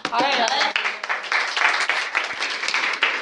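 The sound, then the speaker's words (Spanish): An audience applauds steadily for about three seconds, a dense, loud wash of many hands clapping, with some voices and cheering mixed into the crowd noise. “ahora viene el aplauso.”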